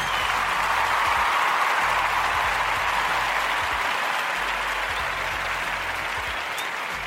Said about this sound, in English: I'm gonna give a clap more.